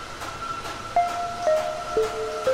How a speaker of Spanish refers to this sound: Están moliendo mi café.